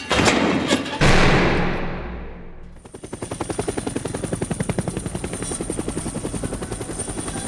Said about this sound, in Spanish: Tres meses después, el helicóptero en el que viajaba el hijo del presidente Carlos Jr. junto a Silvio Oltra se estrelló causando la muerte de los dos pasajeros.